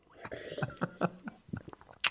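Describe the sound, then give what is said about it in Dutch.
Someone takes a sip of coconut water: a run of soft wet slurps and gulps, ending in a sharp, breathy smack as the drinking stops. “Kom maar, ik neem nog een slok erbij.”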